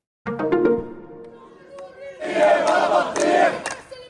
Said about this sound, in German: Hunderte Menschen demonstrieren hier in Ramallah im Westjordanland. Nachdem am Dienstag ein führender Funktionär der Hamas im Libanon bei einem Drohnenangriff getötet wurde.